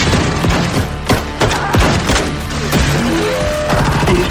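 A loud volley of gunfire from an execution: sharp, overlapping shots crack out in an irregular rapid burst over a dense, rumbling background, with no voices.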